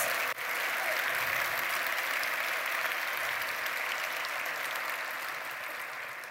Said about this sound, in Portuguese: Pode aplaudir o Evangelho de Jesus mesmo, ele é bonito demais.